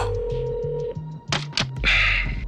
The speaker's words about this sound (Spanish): Por la noche, cuando piensas que el paciente está ya dormido, te diriges sigilosamente al teléfono. Marcas al reportero.